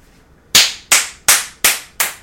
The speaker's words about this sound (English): I'm sorry, you're clapping. What does that mean?